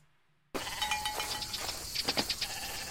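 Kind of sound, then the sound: animal, goat bleating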